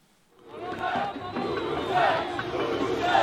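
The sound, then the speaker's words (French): A crowd of nearly 20,000 Stade Toulousain rugby fans in Toulouse roars and chants together, awaiting the team's return with the club's 20th Brennus trophy; a dense wall of many voices swells in after a brief quiet start and stays loud and sustained throughout. “avec près de 20 000 personnes réunies ici même, attendant le retour des héros avec le 20e Brennus de l'histoire du club.”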